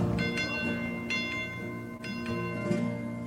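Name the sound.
alarm bell ringing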